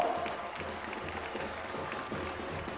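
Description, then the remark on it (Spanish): An audience in Quintana Roo, Mexico, breaks into steady applause for the municipality of Solidaridad, a dense wash of many hands clapping at an even level for the whole stretch, with no voices rising above it. “Quintana Roo le ha dado posibilidades de trabajo y de vida a muchos mexicanos de todos los estados que han venido aquí a buscarse la vida eso merece un aplauso para solidaridad para este municipio.”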